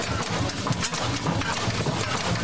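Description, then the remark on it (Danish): A steady, rumbling engine of an old boat idles with a continuous low throb and a faint irregular knocking, holding a constant level throughout with no voices. “og så holde den båd i gang, den her.”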